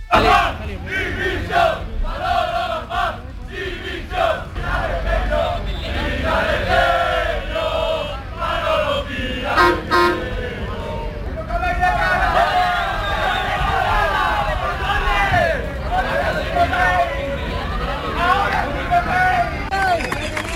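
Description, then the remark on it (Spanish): A large crowd of football fans claps and shouts together, loud, with chanting voices and sharp applause rising and falling continuously for the whole stretch, as coach Pepe Mel comes down to talk with them. “En ese momento, ahora con estos aplausos, es cuando baja Pepe Mel para atenderlos, para, para charlar con ellos.”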